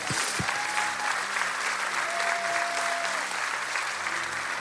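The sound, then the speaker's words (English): A church audience applauds steadily and loudly throughout, a dense wash of many hands clapping together, with a few faint whoops and voices mixed into the crowd. They applaud everyone who has just prayed to become a Christian. “Come on, let's clap for everybody.”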